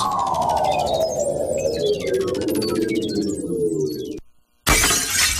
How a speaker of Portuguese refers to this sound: O seu vidro quebrou?